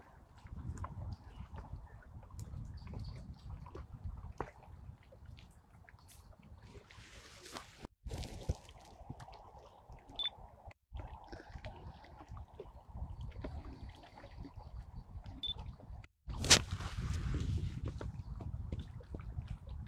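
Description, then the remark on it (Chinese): Water of Kunming Lake at the Summer Palace lapping softly in a low, steady wash on a very foggy day, with irregular small splashes and a brief louder surge near the end. No one speaks. “能听见昆明湖的水声吗？”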